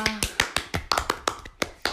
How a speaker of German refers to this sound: Applaus für uns.